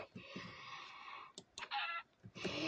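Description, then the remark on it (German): A chicken clucks several times in close succession, loud, with short choppy bursts and brief gaps between them; no one speaks. “Ein Huhn.”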